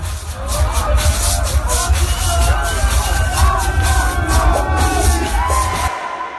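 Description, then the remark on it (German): A packed crowd of ravers cheers and whoops in front of the DJ booth in the small club Sparte 13, over a steady, loud wash of babble, with rising shouts and a thumping low-end rumble beneath, sustained throughout before cutting off abruptly. “Aber vor dem DJ-Pool jubeln natürlich glückliche Raver immer.”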